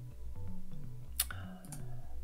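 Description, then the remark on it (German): A crisp mouse click snaps out once near the middle, followed by a softer second click, both sitting over a steady, looping background melody with no talking. The click is on a "Weiter" (next) button to end a mission in a program. “Und wenn man alle Fragen abgearbeitet hat, dann beende ich die Mission, indem ich auf Weiter klicke.”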